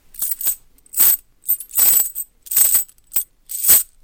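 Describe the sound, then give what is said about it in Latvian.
A metal chain is dropped into a pile again and again, about six bright, jangling clattering bursts at an uneven rhythm, fairly loud, with brief silences between and no voices. “Un viens būs teiksim, pieķēdāts pie sienas, smags noziedznieks. Tagad mēs to sametam kaudzē.”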